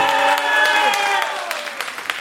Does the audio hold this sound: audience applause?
yes